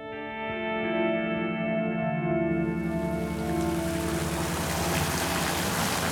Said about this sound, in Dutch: Het water van het Van monument, Het Van Heuts Monument vlakbij het Olympiaplein in Amsterdam.